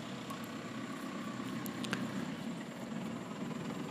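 A car passes by a terrace, its engine rumbling steadily, a broad droning noise that holds fairly even throughout with little rise or fall, and no one speaks.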